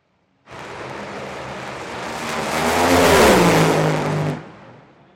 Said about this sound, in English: So now I'm going to play a top fuel run from the far end of the racetrack.